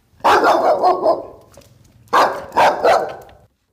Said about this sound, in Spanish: Estaba muy asustada por los pinches perros. Quinta lección. De las pintorescas casas de las orillas del camino pueden salir perros feroces a tu encuentro.